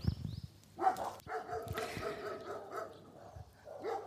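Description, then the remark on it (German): Several dogs in a Bohemian village bark excitedly at a person walking past, a rapid overlapping string of barks and yaps that keeps going for the whole stretch, with a faint high whine and outdoor noise behind. “die böhmischen Hunde im böhmischen Dorf rasten gerade komplett aus, weil ich hier lang spaziere.”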